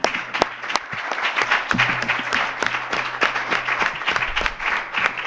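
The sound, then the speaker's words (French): An audience applauds steadily for several seconds, a dense wash of overlapping claps with sharper individual hand-claps standing out, holding a fairly even loudness throughout. “Vous pouvez les, les applaudir.”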